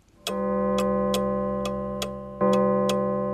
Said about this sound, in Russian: Часы пробили 13.